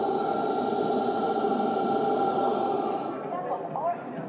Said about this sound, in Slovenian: Tako da, če boste vidva slišala, moja snemalka, sigurno bo slišala ventilatorje, ki um, hladijo ta dva monitorja.